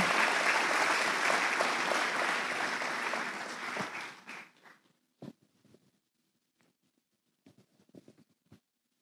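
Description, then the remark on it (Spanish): A crowd at a Christian worship service applauds the Lord loudly and steadily for about four seconds, then the clapping quickly thins out into a few scattered, isolated claps before fading to quiet. “Si le va a dar el aplauso al Señor, hágalo con ganas, no amaguen.”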